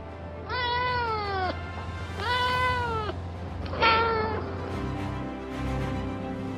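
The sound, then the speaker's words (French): Félicette, a small French female cat with black and white striped fur, a feline astronaut aboard a rocket, meows three times, loud: two long, drawn-out wails followed by a shorter, sharper cry, with no one talking and only a low background hum afterward. “À son bord, il y a un félin astronaute, une petite chatte française au pelage rayé noir et blanc.”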